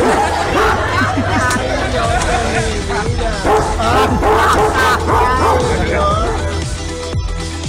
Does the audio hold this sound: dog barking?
yes